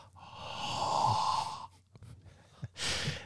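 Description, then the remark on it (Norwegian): A person exhales heavily and forcefully, a long breathy puff followed after a brief pause by a second shorter one, demonstrating breathing in a referee's direction. “Da puster du i dommerens retning.”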